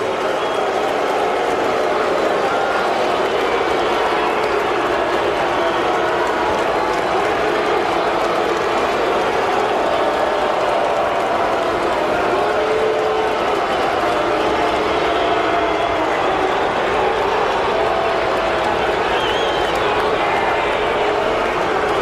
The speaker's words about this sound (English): certainly not a warm greeting from the crowd here in Chicago. And I guess what would you expect?